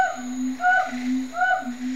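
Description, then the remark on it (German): Two gibbons, a male and female pair, sing a duet: a low sustained hooting tone overlaps higher sliding whoops, repeating in a steady rising rhythm, moderately loud, with no talking. “Anders als bei den Vögeln singen nicht nur die männlichen Gibbons, sondern auch die Weibchen im Duett mit ihren Partnern.”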